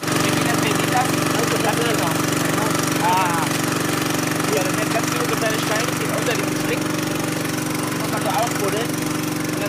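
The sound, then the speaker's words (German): A gold-washing sluice machine's engine runs loud and steady on a river for the whole stretch, catching gold in its sieve while stones are washed back into the river; a constant droning rumble with rushing noise layered over it and faint, indistinct voices beneath. “Und in diesem Sieb verfängt sich dann eben idealerweise nur das Gold unten und alle Steine und so weiter werden wieder zurück in den Fluss gespült.”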